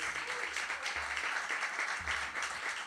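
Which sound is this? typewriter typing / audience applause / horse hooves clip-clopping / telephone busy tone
audience applause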